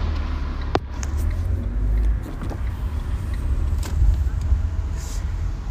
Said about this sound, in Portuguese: estão a passar muitos carros, eu espero que vocês consigam ouvir.